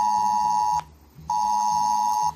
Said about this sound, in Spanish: Quédate con este sonidito porque a partir de hoy un pitido como este y una notificación nos van a avisar de catástrofes o de emergencias como por ejemplo terremotos, incendios, temporales de fríos o también, ¿por qué no?, una ola de calor.